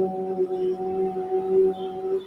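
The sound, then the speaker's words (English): A single voice holds a steady, sustained "ooh" tone at one pitch for about two seconds, fairly loud, with no other sounds around it; vocal toning for sound healing, using the vibration of the sound. “So using the vibration of the sound, so I can say like.”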